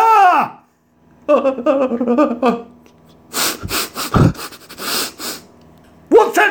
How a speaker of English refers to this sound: Exactly. Now sniff my finger.